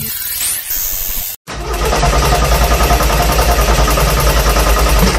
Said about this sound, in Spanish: Y así se escucha mi carro cuando me dice mi vieja vete por los limones.